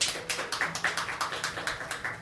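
Steady, evenly spaced audience applause, around ten crisp claps in quick rhythm, fairly soft, welcoming a singer-songwriter to the stage at a live music and reading event, with no voices.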